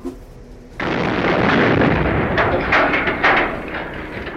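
A dynamite explosion bursts in suddenly after a brief quiet moment, then becomes a loud, sustained roaring rumble with crackling bursts that slowly fade toward the end. No one speaks.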